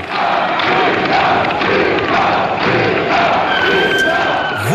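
A large concert audience roars with sustained cheering and dense applause, a loud continuous wall of crowd noise with shouts rising over the clapping throughout.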